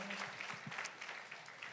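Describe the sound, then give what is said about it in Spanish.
An audience claps in a steady, dense patter of many hands, a continuous crackling wash without a clear beat, at a fairly even, moderate level throughout. “Un aplauso, aunque en nuestra casa sus papás le dicen que aplaudimos por las fotos chidas que toma.”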